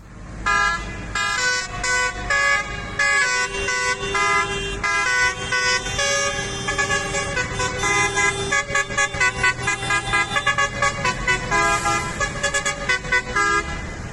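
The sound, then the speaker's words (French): Many horns on large tractors honk together at a farmers' protest in a small German town on 22 January, a loud, overlapping chorus of sustained blasts turning into rapid rhythmic bursts near the end, with engine rumble underneath and no one speaking. “Alors c'est plus facile au volant de gros tracteurs, comme ici euh, dans une petite ville allemande, c'était le 22 janvier, alors c'est parfois moins harmonieux.”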